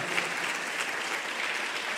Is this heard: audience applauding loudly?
yes